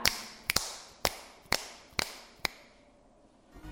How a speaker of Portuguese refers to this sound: Já sabem que som é esse? É o estalar dos dedos.